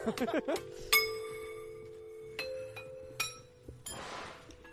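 A phone taps against a glassy object a handful of times at uneven intervals, each strike giving a bright clink that rings out with a sustained tone, ending in a brief rustle.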